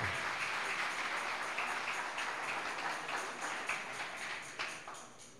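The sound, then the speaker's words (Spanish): Sustained audience applause for the actors, a dense crackle of many hands clapping at a steady level for several seconds, with no voices over it. “Un aplauso fuerte, denles un aplauso bien fuerte.”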